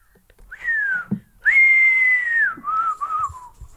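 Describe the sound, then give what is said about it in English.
A person whistles a bird call imitation: a short rising note, then a long sustained high tone that dips, followed by two brief lower warbling notes, with no talking. “That was my bird call.”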